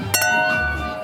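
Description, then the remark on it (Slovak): Two wine glasses tap together in a toast in quick succession at the Víno pod hviezdami wine festival, and a bright ringing tone lingers and slowly fades over the next second. “Na zdravie.”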